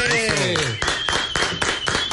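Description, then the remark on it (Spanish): Loud, steady applause of many hands clapping in a dense rhythmic patter, opening with a brief swooping tonal flourish that fades as the clapping carries on, welcoming public figure Julio Clemente as a guest on the show Buscando Sonido. “Así es, con aplausos recibimos a Julio Clemente.”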